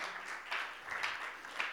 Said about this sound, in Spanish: Oh, dale ese aplauso fuerte al Señor, iglesia.